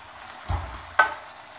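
A pan sizzles steadily, then a short low splash and a brief sharp burst of hissing as a small splash of milk hits the hot pan, settling back into a quiet fry.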